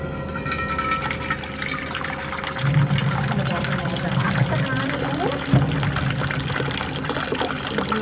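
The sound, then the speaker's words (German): Tap water runs steadily into three cups, a continuous hissing splash with slight changes in tone as it fills, while voices murmur faintly underneath. “Jetzt gehen wir noch an also. den Hahn.”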